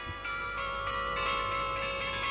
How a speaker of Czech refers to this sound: Nad hlavami nám stále zní z vysoké věže elektrická zvonkohra, kterou v této části výstavy slyšíš od rána do večera.